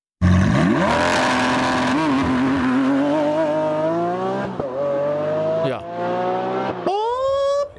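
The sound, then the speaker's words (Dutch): A Lamborghini Aventador SVJ 6.5-litre V12 engine revs hard, its harmonic howl climbing steadily in pitch with three quick breaks as it shifts up through the gears, ending on a sharp high-rev surge. “en je hebt natuurlijk ook die Aventador SVJ. Dat is een 12 uh, V12. 6,5 liter V12.”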